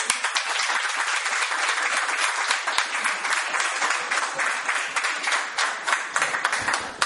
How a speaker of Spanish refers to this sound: Un aplauso por ahí.